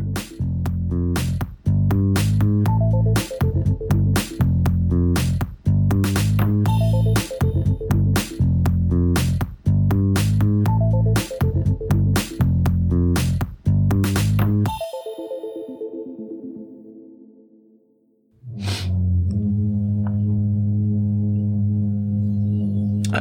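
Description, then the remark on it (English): Loud, droning hum of pipes resonating after a bathroom toilet is flushed, overlaid with rhythmic ticking roughly once per second, then fading briefly before the steady hum swells back up on its own. “so that is the whenever we flush the toilet in the bathroom that we're using, uh, that noise happens because it, that toilet is never used”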